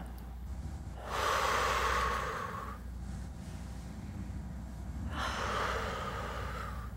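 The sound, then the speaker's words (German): Two slow, deliberate breaths, each a long airy rush lasting nearly two seconds, separated by a quiet pause, with no talking, showing how to breathe. “Zeig mir, wie man atmet.”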